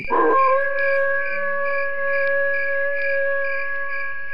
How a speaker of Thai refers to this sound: แต่จู่ๆก็ได้มีเสียงหมาหอนนั้นดังขึ้น